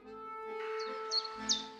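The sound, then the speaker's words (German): Birds chirp outdoors on a mild, cloudless autumn day in short, high, bright bursts, four or so spaced about a third of a second apart, over a steady low hum of background noise. “Dieser Herbsttag ist ein milder. Vögel zwitschern, der Himmel wolkenlos.”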